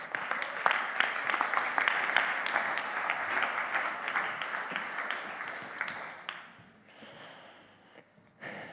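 A crowd applauds warmly to welcome a speaker to the stage, dense overlapping claps holding steady for about six seconds, then thinning out and fading to a few scattered claps.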